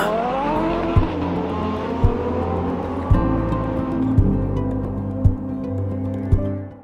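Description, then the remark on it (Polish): A powerful Bugatti Veyron sports car engine roars loudly and steadily, with rhythmic revving surges about once a second and a faint screech of tires underneath; no one speaks. “Chociażby podarowując w prezencie urodzinowym najnowszy model samochodu Bugatti Veyron.”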